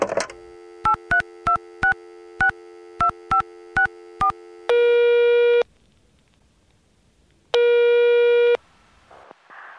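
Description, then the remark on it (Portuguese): A steady telephone dial tone underlies a quick series of keypad beeps, followed by two long, loud phone-line tones separated by a silent gap, as a call goes to voicemail. Clear, with no voices. “Caixa postal do Tecnocast. Você tem novas mensagens.”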